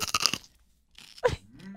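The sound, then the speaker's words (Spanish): A crisp crunch of someone biting into a chile manzano pepper: a quick burst of several crunches, a pause, then another loud chomp, with a faint voiced sound trailing at the end. “Solo una mordida, niña,”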